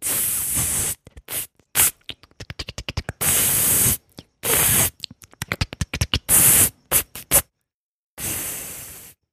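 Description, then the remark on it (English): Spray paint hisses out of a can in a series of bursts, some long steady sprays and others quick short puffs, fairly loud with brief silences between them. “they're basically actually like marble sized orbs of metal that you can squeeze and will distribute pigment.”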